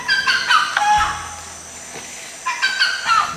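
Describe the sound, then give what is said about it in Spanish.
A tatatao bird calls twice in quick, stuttering bursts of high chirpy notes, with a short quiet gap between the two phrases; clear, with no one talking. “y se convirtió en el pájaro que lleva ese nombre porque así canta.”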